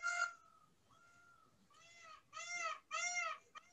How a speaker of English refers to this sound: oh, that came out of my monitor. I wasn't expecting that. Sorry yeah. That. That's okay. Well, now there's a peacock noise in the podcast. Now. That is a peacock noise.